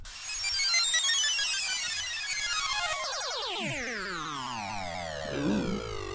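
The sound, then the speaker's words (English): A synthesized video game whale creature's call sweeps and warbles in layered descending tones over a bright, hissing wash of water spouting out of the whale, loud and continuous for about six seconds with no talking. “Oh, it's a whale! you can hear the water spouting out of him.”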